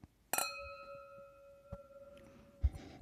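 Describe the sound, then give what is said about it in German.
A single bright clink of wine glasses touching in a toast, ringing out with a long, clear tone that slowly fades, followed by a faint knock and a soft thud near the end. “So, zum Wohl.”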